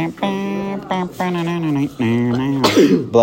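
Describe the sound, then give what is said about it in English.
A sneeze: several drawn-out, voiced gasping breaths build up, then end in one sharp, loud, breathy burst. “Bless”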